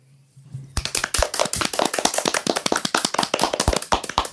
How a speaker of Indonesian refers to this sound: mari kita tepuk tangan 5 detik untuk ini